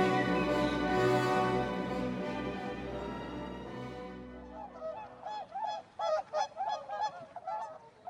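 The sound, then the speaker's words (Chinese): A dense, steady harmonic wash fades out and gives way to a flock of white swans honking, a quick run of nasal, brassy calls in uneven bursts with no voices. “奥黛尔的眼前出现了一群有着洁白羽毛的白天鹅，在阳光下闪闪发亮，美丽极了。”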